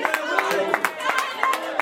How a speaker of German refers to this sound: Jetzt eskortiert die Polizei den nächsten raus, der wehrt sich. Jetzt legt er sich auf den Boden. Einige klatschen, dass er rausgeschmissen wird. Das sind dann wohl die Leute, die etwas gegen diese Demonstration haben.